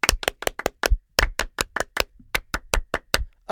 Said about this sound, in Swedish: Oh! En fransk applåd! Un, deux, trois!